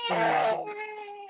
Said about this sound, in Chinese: 我有背景音乐，小孩哭。